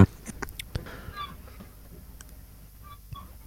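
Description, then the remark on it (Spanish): Seagull cries, a couple of short squawking calls from one of many gulls present, rising over a quiet background with a few soft clicks and thumps. “Mm, siento que escucho una gaviota.”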